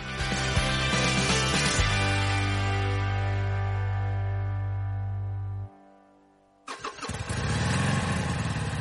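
A motorcycle engine cranks and roars to life, holds a steady rev, cuts out for a moment, then fires up again with loud revving, with no talking.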